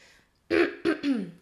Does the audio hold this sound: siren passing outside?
no